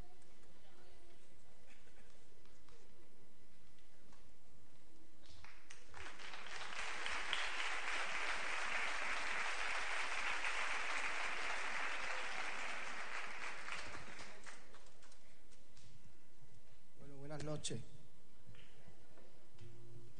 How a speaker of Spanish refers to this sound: Un fuerte aplauso para ellos.